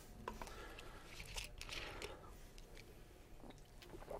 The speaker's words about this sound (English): I get to have a quick slurp while you're looking at that.